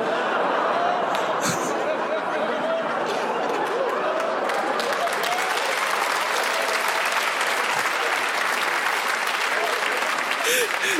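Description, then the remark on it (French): An audience claps steadily and loudly for a performer after a joke, a dense, continuous wash of applause lasting the whole stretch, with faint crowd voices and a few scattered shouts mixed underneath. “Vous m'applaudissez, je me dégoûte, frère.”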